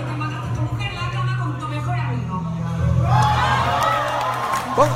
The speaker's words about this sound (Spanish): Son gente reaccionando escenas de la peli. Obviamente que no se escucha bien porque es grabado. Pero es gente que se reúne.